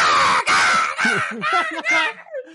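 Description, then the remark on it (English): A person mimics crows with a run of harsh, nasal caws, about five or six quick calls in a row, loud, fading into a softer trailing squawk. “Yeah, or like the the crows go.”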